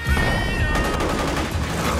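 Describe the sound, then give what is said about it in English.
A rapid volley of gunshots, sharp cracks firing in quick succession over a dense, loud background of battle noise, with a sustained high tone ringing through the first part. “Where'd you learn to shoot?”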